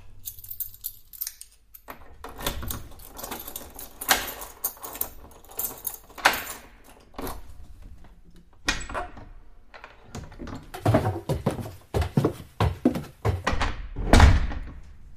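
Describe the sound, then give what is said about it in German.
Keys jangle and scrape in a lock, followed by the clunk of the bolt turning and an apartment door being pushed open from the stairwell, with several sharp thunks and rattles over about fifteen seconds. “So, komm, mach auf.”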